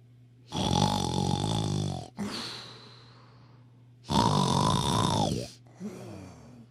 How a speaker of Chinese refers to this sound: 花豹的呼噜声十分响亮